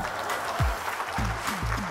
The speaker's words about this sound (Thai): ผมขอเสียงปรบมือดัง ๆ ให้กับฟอนต์ฮิสตอรี่ด้วยครับผม